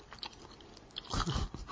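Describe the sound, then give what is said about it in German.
Wet smacking and chewing sounds of someone eating chocolate, with irregular bursts of mouth noise growing louder toward the end and no speech. “wir schmatzen hier schon ganz schön gut rum, ne?”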